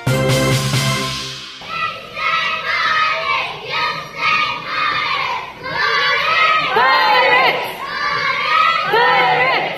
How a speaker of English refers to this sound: If you're not familiar with this cheer, you should be. The Monte Vista youth cheerleaders are wowing audiences at local ball games, parades, and various events across the town and beyond.